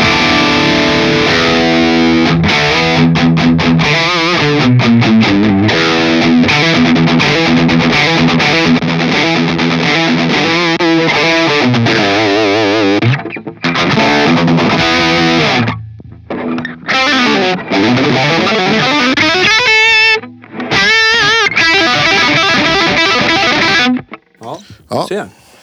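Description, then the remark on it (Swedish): A heavily distorted electric guitar plays thick, sustained chords and bends with a big roomy reverb tail. It rings out loudly, with a few brief pauses and a shift to higher notes near the end. “Kanske lite för mycket dist.”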